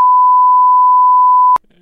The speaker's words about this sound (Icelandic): Já, já, þú ert að spóilast samt fyrir alla sem hefur ekki séð það það við getum ekki gett ráð fyrir að kemur þetta ekkert fram hver ég held við erum að blýpa þetta sko